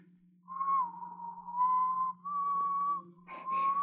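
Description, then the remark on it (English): Someone whistles the wedding march in long, held notes that barely change pitch, nearly a single note throughout, over a faint low hum, with a brief breathy flutter near the end. “What's that you're whistling?”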